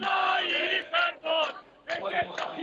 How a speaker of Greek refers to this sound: ακούμε τον κόσμο εδώ ενθουσιασμένο να φωνάζει το όνομά του.